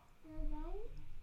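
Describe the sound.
A child's voice from one of a couple of kids carries faintly from the background, one short high-pitched rising vocalisation, over a low, steady rumble.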